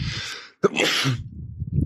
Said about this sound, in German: Entschuldigung, darf nicht in die Sonne gucken. Die Muss man niesen.